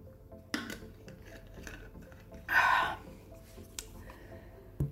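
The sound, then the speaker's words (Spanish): Someone drinking water: a light clink of a glass, a short breathy swallow or sigh in the middle, then another small knock as the glass is set down, all fairly quiet with no talking. “Ya me hacía falta tomar agua.”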